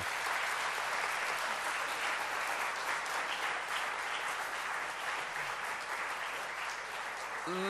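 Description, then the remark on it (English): Sustained audience applause, a dense, steady wash of many hands clapping at even loudness throughout, with a voice just starting to speak at the very end. “Let's give a round of applause, first of all, to Abby and Daryl.”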